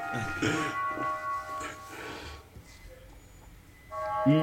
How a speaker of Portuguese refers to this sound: é o sino da igreja aqui. Vai ficar na edição.